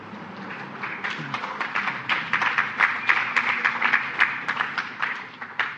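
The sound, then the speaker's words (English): A crowd claps steadily during a sermon for several seconds, a dense patter of many hands at moderate loudness that swells slightly midway and then thins toward the end, with no one speaking over it. “No one ever claps during a sermon.”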